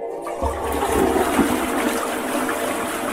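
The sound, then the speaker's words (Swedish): A toilet flushes, a loud rushing gush of water that starts abruptly and keeps churning steadily through the whole few seconds, with no voices. “Det ser ut som det är dags för veckans spolning, va?”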